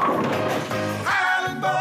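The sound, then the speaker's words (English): A bowling ball at Highland Bowl rumbles down the lane and crashes into the pins, a loud, hollow clatter with ringing overtones that sustain briefly before fading. “We set them up, you knock them down.”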